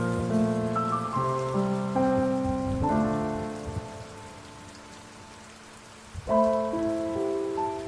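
Steady rain pattering on a surface, a continuous soft hiss under gentle sustained musical chords that shift every few seconds; no one speaks.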